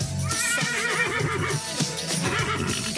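A horse neighs and whinnies loudly for about three seconds over a telephone line, its warbling cries dominant, with a faint clopping in the background and no talking.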